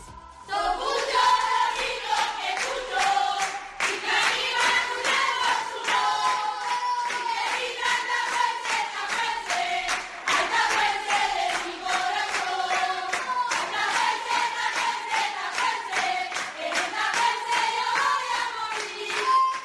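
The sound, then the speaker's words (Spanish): The players of a football team being relegated from Spain's Liga Iberdrola shout a rhythmic chant together in their locker room, loud, with steady hand claps running under the voices for the whole stretch. “que escuchan es el grito de un vestuario que por desgracia el año que viene no estará en primera división, no estará en la Liga Iberdrola.”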